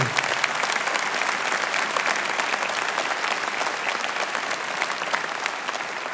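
audience applause

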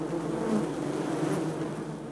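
honeybees buzzing

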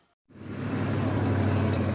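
rush hour road traffic

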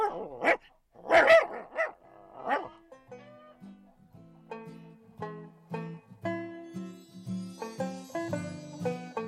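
dog barking

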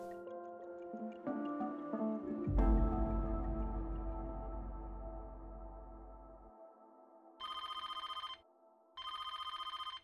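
telephone ringing

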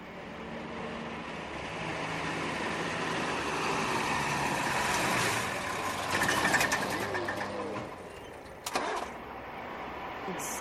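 city traffic

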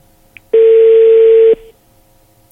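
telephone being dialed

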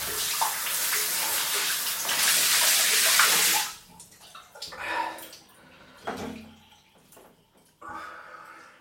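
shower water running

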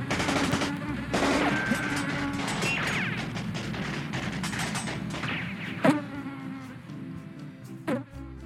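mosquito buzzing

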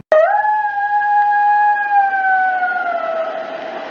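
howl

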